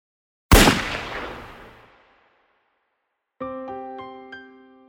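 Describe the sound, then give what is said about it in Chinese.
A single sharp, loud gunshot rings out and decays in a long echoing tail, followed after a pause by sustained, piano-like musical notes struck in several chords. “当枪声响起时，温斯顿正抬头望着画像里老大哥的脸，看着老大哥的笑容，最后流下了两行眼泪。”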